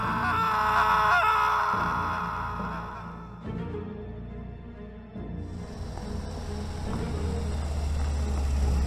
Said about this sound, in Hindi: कि तभी उसको कोई घसीट कर जंगल में ले गया और एक चीख पूरे जंगल में गूंजी